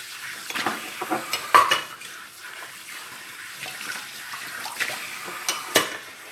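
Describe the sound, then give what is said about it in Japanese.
Water runs steadily from a kitchen tap while dishes and utensils clink and clatter now and then, a few sharper knocks standing out, with no one talking. “すごいいい感じこれどんな風に撮れるんだろう水の音がすごいできるんだろうかそんな気がする”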